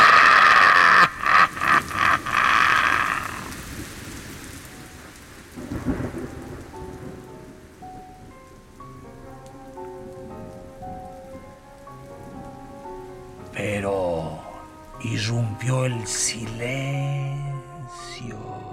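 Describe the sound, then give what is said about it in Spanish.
Heavy rain hisses loudly at first, then settles into a steady patter, with a low rumble of thunder rolling in and tonal, music-like sounds rising near the end. “Y la lluvia ya no se derrumbaba.”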